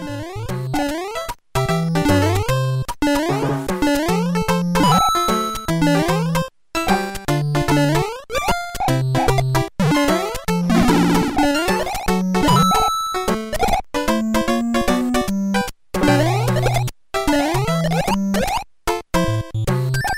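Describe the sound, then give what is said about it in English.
Bouncy 8-bit video game level music from the first level of Super Mario Bros. 3, original NES version, plays loud and alone: buzzy square-wave melody over a bouncing bass line, with brief dropouts where the tune cuts out for a split second. “here's some audio I recorded from the first level of Super Mario Bros. 3. First from the original game on the NES”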